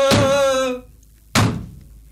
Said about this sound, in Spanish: Por supuesto que al oír eso los diablos se pusieron furiosos, pero no abrieron la puerta. Y allí estuvo Ubieta como tres días dándole a la puerta del infierno.